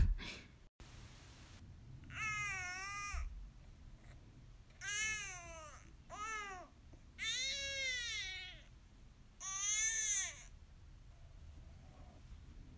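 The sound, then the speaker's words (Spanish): A sleepy baby fusses in five whiny, drawn-out cries, each rising and falling in pitch with short pauses between. No one speaks over them. “Ok, así suenan los bebés cuando tienen más o menos sueños.”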